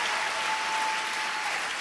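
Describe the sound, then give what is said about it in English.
A church audience claps their hands one more time before being seated, in a steady, dense wash of applause that holds at an even, fairly loud level for the whole stretch, with no voices rising above it. “Now clap your hands one more time before you're seated.”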